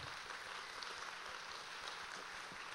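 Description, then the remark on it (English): A crowd applauds a performer who has just finished, a dense, steady wash of many hands clapping that holds an even level for about three seconds, fairly soft overall, with no voices. “Can we give a round of applause for David?”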